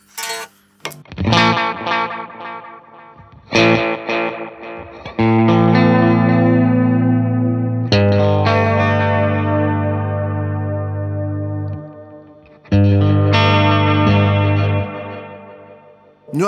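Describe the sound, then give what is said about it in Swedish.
An electric guitar plays sustained chords through a delay pedal set to heads 1 and 3, each strum trailed by repeating echoes that blur into a thick, wavering wash. It's loud, with no voices. “Och trycker man en, sista, eh, en tillgång då så får man huvud 1 och 3.”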